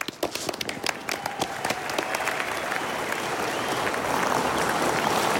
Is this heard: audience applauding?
yes